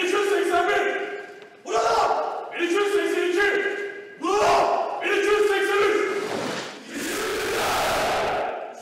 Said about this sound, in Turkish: ve geleneksel yoklama sıra Atatürk'ün öğrencilik dönemindeki numarası 1283'e geldiğinde tüm Harbiyeliler ayağa kalkarak içimizde diye bağırdı. O anlarda tüyler diken dikendi.